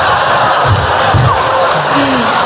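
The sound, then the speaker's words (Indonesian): A crowd claps steadily in a mosque, a dense, continuous patter of applause with scattered voices calling out beneath it. “Eh, jangan tepuk tangan di masjid antum lah.”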